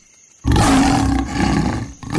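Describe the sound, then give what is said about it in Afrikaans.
A lion lets out a loud roar after a brief quiet moment, a deep rumbling bellow that holds for over a second, dips, then surges again; the lion opens its mouth wide, showing its long sharp teeth. “Leo maak sy bek wyd oop sodat vlakvark sy lang skerp tande kan sien. Hy brul weer hard en roep.”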